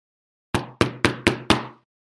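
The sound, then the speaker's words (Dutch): Five firm knocks on the large wooden door of the headquarters of the Sitaki gang, evenly spaced, each with a solid low thud and a brief resonant ring, with no voices. “Zo klopte Max op de grote houten deur van het hoofdkwartier van de bende van Sitaki.”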